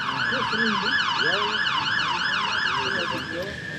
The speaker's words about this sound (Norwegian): Man får vi en veldig passende ambulanse i bakgrunnen som understreker eh, viktigheten av dette. Vi kan vente ut den ambulansen, kanskje.